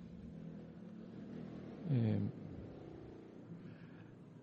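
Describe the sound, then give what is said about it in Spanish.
A loud motorcycle without a muffler rumbles steadily in the background with a sharp rev surging and falling away midway, while a man briefly voices a hesitation over it. “en esa época no había motos sin muflas.”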